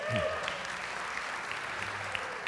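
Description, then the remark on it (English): A church audience applauds together as a hand clap of praise to God, a dense, steady wash of many hands clapping that fills the whole stretch at even loudness, with a brief vocal tone near the start. “Let's give God a hand clap of praise for that.”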